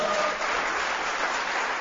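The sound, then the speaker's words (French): Steady applause from an audience of students applauding themselves, a dense wash of many hands clapping at once, sustained and fairly loud throughout with no pauses or voices standing out. “Est-ce que vous pouvez applaudir pour vous-même euh,”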